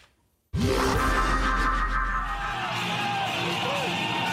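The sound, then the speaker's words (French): A large crowd at Éric Zemmour's presidential campaign rally at the Villepinte exhibition centre erupts into loud, sustained cheering as he crosses through it, after a brief silence, with yells and whoops rising above a dense roar that holds steady to the end. “Hier, au parc des expositions de Villepinte, Éric Zemmour traverse la foule qui l'acclame.”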